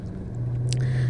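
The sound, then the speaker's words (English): Steady low rumble of road noise inside a car driving on an expressway, a constant droning hum with a faint hiss on top, unbroken and fairly loud throughout, with no voices. “I was driving on the expressway right now, so I'm sorry if you heard all of that noise in the background,”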